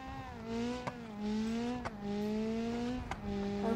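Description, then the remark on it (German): A video game race car, the Grip All, revs its engine loudly and continuously, its pitch climbing and dropping back with three quick gear-shift clicks, with no talking over it. “Aber wir haben jetzt ein anderes Auto, das heißt den Grip All. Okay, es klingt schon mal übrig.”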